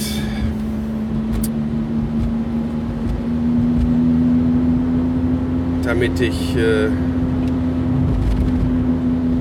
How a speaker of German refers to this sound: und ihr auch dieses Geräusch von dem kaputten Radlager uns nicht mehr weiter antun müssen. Da geht es ja nicht nur ums Geräusch, das ist ja Auto funktioniert nicht mehr richtig